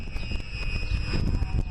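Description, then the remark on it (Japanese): A steady electrical hum of current from a solar power inverter station, a substation-like facility beside an unpaved dirt road about four lanes wide, with thin, sustained high-pitched whining tones over a low rumble and faint, regular soft thumps. “この電流の音がしてきている変電所のような場所があります。ちょっと電流の音を聞いてみます。”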